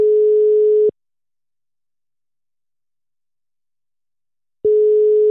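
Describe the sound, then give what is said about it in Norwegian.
A telephone ringback tone sounds while a call is placed to a man: a steady electronic tone for about a second, a long pause, then the tone begins again, clear. “Og nå ringer vi han.”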